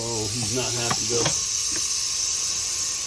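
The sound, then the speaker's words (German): A large venomous rattlesnake in a house kitchen raises its head and rattles its tail as a snake catcher approaches, giving a steady, dry, hissing buzz that runs unbroken for about three seconds, with a voice briefly heard over the first second. “richtet sie ihren Kopf auf und beginnt bedrohlich mit ihren Rasseln am Schwanzende zu klappern.”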